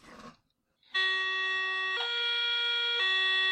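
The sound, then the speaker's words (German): A voice imitates an S-Bahn train door-closing signal: a brief rustle, then a loud, steady electronic-sounding tone held for nearly three seconds, stepping up slightly in pitch before dropping back. “Aber es ist schon original das S-Bahn-Türschließgeräusch, ne?”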